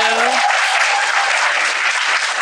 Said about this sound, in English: We gotta clap that up.